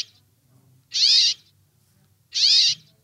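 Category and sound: bird, brambling short call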